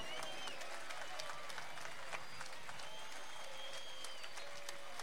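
Sustained concert crowd applause for a band member on stage, dense and steady clapping with scattered sharp hand claps and faint whistles on top, continuing without pause for the whole stretch.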